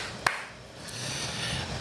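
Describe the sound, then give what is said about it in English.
One sharp, crisp hand clap cracks out at the start of a recording, followed by a much fainter second tap, then only a steady low hiss. No one speaks. “Um, so I'll just start it off with the claps.”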